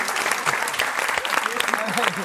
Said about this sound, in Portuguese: Vocês viram e aplaudiram, mas não ouviu o que ela falou.